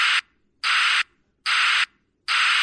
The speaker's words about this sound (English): They're just worried that people might not associate the new sound with the truck backing up because when you hear this, you're like, up, oh, get out of the way, truck's backing up. But then when you hear this,